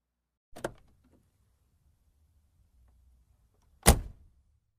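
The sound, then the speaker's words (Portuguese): A car arrives around 1 pm; two car doors shut about three seconds apart, the second one louder, with a faint low engine rumble idling in between. No one speaks. “Algumas horas depois, por volta das 13 horas, ouviram um barulho de carro.”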